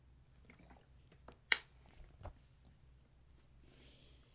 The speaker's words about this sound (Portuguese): Deixa eu beber um, gole de água aqui, peraí.